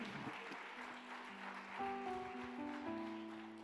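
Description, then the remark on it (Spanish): A church audience claps steadily at the preacher's call for another loud round of applause, a dense, continuous wash of applause, while sustained keyboard or organ chords ring out underneath and swell toward the end. “Si quiere que Dios le abra puerta, vamos, darle otro aplauso fuerte.”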